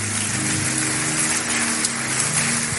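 audience applause

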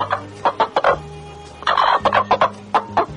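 hen clucking

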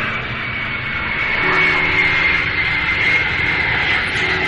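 airplane engine

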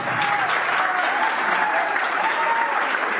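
audience applause and cheering

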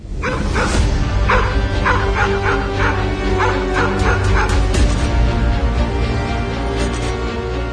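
dogs barking aggressively

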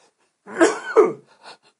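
coughing

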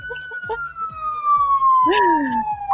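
police car siren

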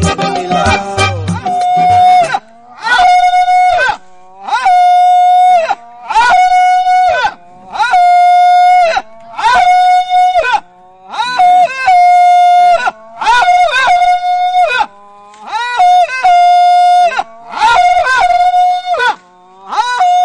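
people shouting and screaming

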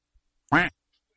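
duck quacking

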